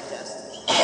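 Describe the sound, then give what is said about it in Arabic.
A single abrupt sneeze bursts out near the end of an Arabic talk on a Quran verse, loud and breathy, following a brief stretch of quiet voice or murmur. “طيب يرحمك الله”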